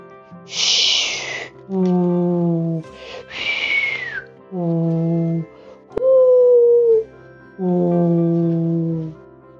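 A voice imitates the howling wind of a snowstorm, alternating breathy hissing gusts with long, wavering hooting moans, fairly loud, repeated several times with short pauses between.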